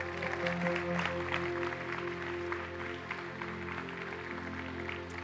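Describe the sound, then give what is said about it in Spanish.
A church audience applauds for the people watching the service, a steady, dense wash of clapping that holds at an even level for several seconds over a low, sustained hum. “Que toda la iglesia denle un aplauso a los que nos están viendo, amén.”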